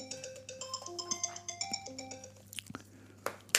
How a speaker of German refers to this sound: Da war das Handy. Das lassen wir, das lassen wir ungeschnitten drin. Ja, viel, äh, viel gefragt, nee, der Kollege hier. Ich, ich, war mir ganz sicher, ich hatte, ich hatte den Flugmodus.